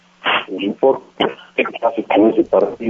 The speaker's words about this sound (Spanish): Doctor, tenemos problemas con, con, el teléfono. Eh, que te vuelvan a, a, marcar o si te puedes mover un poco.